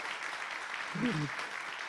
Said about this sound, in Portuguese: Ah! Meu irmão, vamos aplaudir ao Senhor, olha só.